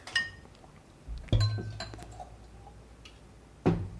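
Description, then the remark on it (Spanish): Beer being served into a glass during a beer tasting: a few bright glassy clinks with ringing tones, one early, a heavier knock in the middle and another near the end, with quiet handling between and no talking. “Chan, bueno, ahí la servimos.”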